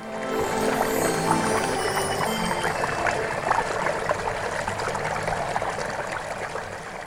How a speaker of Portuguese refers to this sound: vazamentos em torneiras e chuveiros que pingam.